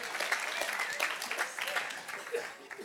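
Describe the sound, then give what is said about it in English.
A crowd in Orange County claps together in a short burst of dense, steady applause lasting a few seconds, moderately loud, with faint voices mixed in. “Come on, just let's just give a quick hand clap that we live in sunny Orange County.”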